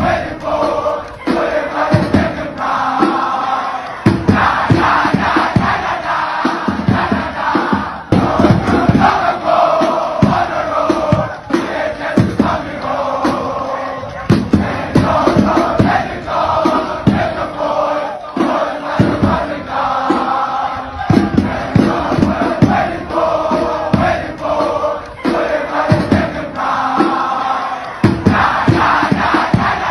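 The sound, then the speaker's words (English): A large crowd of Durban High School students chants a war cry in unison in a war cry challenge against Amanzimtoti, loud, with rhythmic shouted phrases and sharp collective yells repeating throughout, no other speech heard. “WAR CRY CHALLENGE - DHS VS AMAMZIMTOTI”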